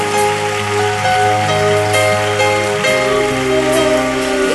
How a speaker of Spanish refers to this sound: Dele palmas a nuestro Dios.